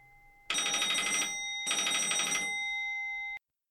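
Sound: telephone ringing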